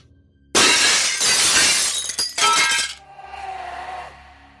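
A mirror is smashed: a loud, sudden crash of mirror glass shattering, followed by a second burst of breaking and then scattered shards tinkling and settling for a couple of seconds. No voices.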